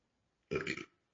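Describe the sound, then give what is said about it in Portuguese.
A single short, throaty burp erupts, lasting under half a second with a rough, gurgling texture, then silence. “Desculpa, arrotei.”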